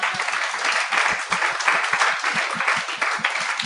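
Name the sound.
audience applause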